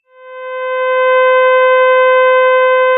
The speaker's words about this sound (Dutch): Ja, dat klinkt al bijna als een muziekinstrument. Hè. Je hebt hier echt een heel toonhebbende ster. Je hoort eigenlijk boventonen wat dat ook het specifieke timbre uitmaakt. Net zoals dat bij de cello het geval is of bij een ander instrument.